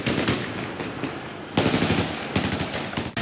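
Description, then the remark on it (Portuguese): Bursts of rapid gunfire crackle loudly and continuously, with sharp automatic volleys surging again midway and near the end, echoing over a noisy outdoor background, as Taliban soldiers fire shots to repress a street protest by Afghan demonstrators against the Taliban government in Afghanistan. “Esse ato foi reprimido com tiros por soldados do grupo.”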